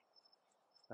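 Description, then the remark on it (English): Crickets chirp faintly outdoors in Florida at 8:30 at night, a thin high-pitched trill that pulses in and out over a quiet, low background hum, ending with a brief louder thump. “Everything's dead where we're at, and I can hear the crickets chirping in the background for you”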